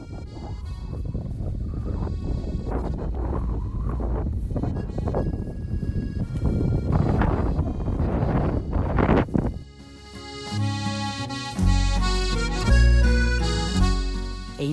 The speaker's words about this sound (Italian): E, e per farvi assaporare un po' questo momento abbiamo qui un 10 secondi di vento di Monte Maggiore.